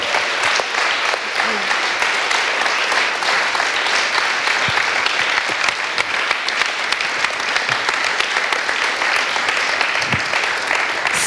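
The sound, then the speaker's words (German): Sustained audience applause thanking a guest who led an evening event, a dense steady wash of clapping hands lasting the whole stretch at an even, fairly loud level, with no voices standing out above it. “Einmal einen Applaus.”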